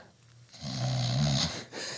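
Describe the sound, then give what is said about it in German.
A person imitates another person's very loud, snore-like breathing while sleeping, a single drawn-out nasal rasp with a low rumbling tone lasting about a second, with no talking. “Also du schnarchst nicht, sondern musst natürlich wieder einordnen, atmest sehr laut.”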